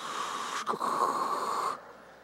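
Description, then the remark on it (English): A voice imitates a dial-up modem connecting: a breathy, hissing screech with a steady whistling tone, a brief break partway through, then the noise cuts off after under two seconds. “If any of you guys remember the dial up days, good Lord knows you couldn't even get on the internet if somebody's on the phone”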